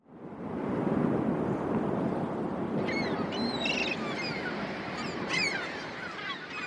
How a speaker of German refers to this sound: Heftiger Wind peitschte die Wellen zu Gischt. Die Luft war erfüllt von Heulen und Rauschen und den Schreien der Vögel, die zu Tausenden in den Steilklippen lebten